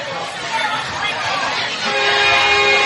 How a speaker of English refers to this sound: That's the train horn I was talking about, by the way, as you can hear now. That's not the uh, CSX line just down the road.